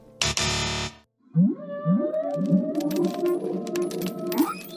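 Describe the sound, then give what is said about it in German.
After a brief harsh burst of noise, a whale calls out in a string of rising, moaning, tonal sweeps that overlap and echo for several seconds, fairly loud with no one speaking. “Jetzt habe ich wieder einen Wahl gehört”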